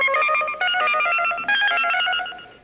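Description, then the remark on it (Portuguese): A loud electronic collect-call telephone signal, played in a listener's WhatsApp audio message: steady synthetic tones with a fast, regular pulsing pattern, heard alone with no talking and tapering off at the end. “Chamada a cobrar.”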